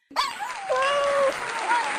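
A burst of applause starts abruptly and holds steady as a dense, even clatter, with a few high whistle-like or whooping tones gliding over it: applause welcoming the founders and publishers of Fido Friendly Magazine onto a show.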